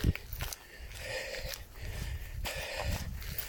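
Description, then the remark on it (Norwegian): Footsteps outdoors in nature near a stream on a starry night, a few crunching shoe steps at an uneven walking pace, fairly quiet, with a soft steady background hiss and no voices. “Jeg hører en bekk, og jeg hører mine egne sko.”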